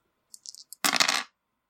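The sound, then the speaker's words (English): A few light clicks, then a short, bright clatter as three dice tumble across a hard table surface during a Tiny d6 tabletop role-playing game. The rattle is fairly loud, with no voices. “roll three dice.”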